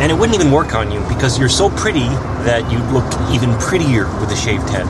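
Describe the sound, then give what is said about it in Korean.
Roadside traffic noise, a steady rumble and hiss of passing cars, runs continuously beneath a conversation between people talking clearly over it. “네, 차 가에 있기도 하고 주변 소음이 심했기 때문에 처음에는 잘 안 들렸었을 수도 있는데 우리가 반복해서 들으니까 이제 잘 들리셨을 겁니다.”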